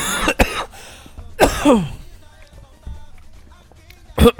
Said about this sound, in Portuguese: Caramba, tô com um pigarro. Pera aí, deixa eu tomar água aqui.